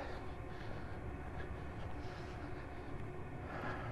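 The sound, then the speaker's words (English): A steady, heavy rumble of a train passing a long way away, heard during a morning walk, loud and continuous with a dense low roar and faint hiss above, with no voices heard. “Gee, that train is a long way away, but boy, is it loud.”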